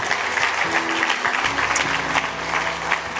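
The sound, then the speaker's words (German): Sustained applause from an audience for the band, a dense wash of clapping hands at steady loudness, with a faint low hum underneath and no talking. “Gib dir mal einen dicken Applaus, bitte.”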